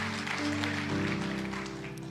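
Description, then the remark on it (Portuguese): An audience at an evening church service applauds the Lord with steady, dense clapping for about two seconds, accompanied by sustained low keyboard chords that shift to a new chord partway through. “Se você crê, crê de verdade, aplauda o Senhor nessa noite.”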